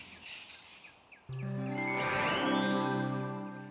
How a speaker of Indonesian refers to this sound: Kok ada suara kicauan burung ya?